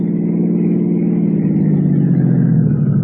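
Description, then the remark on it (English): A car engine runs loud with a steady, throaty hum as the car drives through Westwood and Santa Monica onto the coast highway heading north, its pitch easing slightly lower partway through, with no voices over it. “We cut out dear. through Westwood, then Santa Monica, then hit the coast highway and headed north.”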